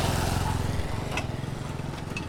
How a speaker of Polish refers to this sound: Dobra droga asfaltowa zmienia się nagle w drogę piaszczystą z wybojami. No tutaj właśnie jedzie sobie motocykl.